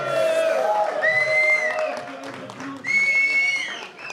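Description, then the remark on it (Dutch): A crowd applauds and cheers continuously for the brewers, with shrill whistles rising above the dense clapping and shouting. The noise stays loud throughout. “Mag ik nog een warm applaus voor onze andere brouwers, dames en heren?”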